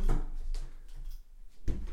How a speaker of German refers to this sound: Ich mach kurz die Tür zu.